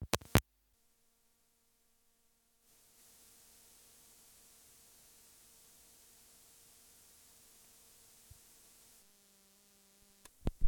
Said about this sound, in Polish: No teraz włożę jack do wyjścia liniowego, no i będziemy słyszeć szum przedwzmacniacza yy, słuchawkowego, szum, szum wzmacniacza, tak jak jest słuchawka podczas przewijania.